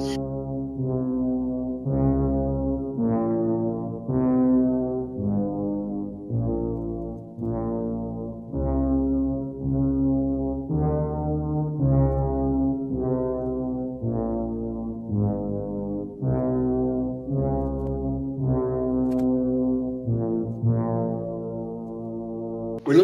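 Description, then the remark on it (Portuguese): Ominous, low synthesizer music from Stanley Kubrick's 1980 film The Shining plays alone for the whole stretch, with droning brassy tones that swell and fall in slow, heavy phrases like a horror film theme. “Ai, tô até ouvindo a musiquinha 1980.”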